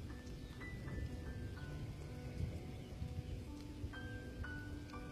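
Heavy rain pours down in a steady, dense hiss, with scattered sharp spatters of drops and a low rumbling undertone. No one speaks.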